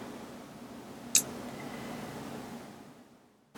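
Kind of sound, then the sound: household object, computer mouse clicking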